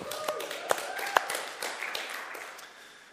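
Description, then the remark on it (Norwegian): An audience gives a man a round of applause: dense, crackling clapping with a few sharper claps standing out, gradually thinning and fading over about three seconds, with faint voices mixed in. “Skal vi gi han en klapp, eller?”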